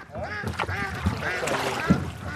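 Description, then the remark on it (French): A busy chorus of ducks and geese quacking and honking over one another, with harmonic calls overlapping continuously at moderate volume, from a crowded flock among the reed-hidden channels of the Danube delta wetland in Romania. “Des oiseaux, des poissons et des milliers de petits canaux cachés par les roseaux, voilà à quoi ressemble aujourd'hui le delta du Danube, un site naturel unique en Europe.”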